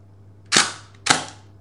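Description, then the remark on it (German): Two sharp mechanical clicks, about half a second apart, as a film magazine unlatches from a camera, each snapping crisply and fading fast over a low steady hum. “wenn ich sie jetzt äh, abnehme, ne? man kann das ja so schön abnehmen”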